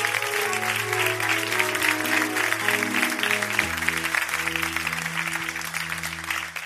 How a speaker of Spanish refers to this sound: ¿Por qué no das un fuerte aplauso de donde estás?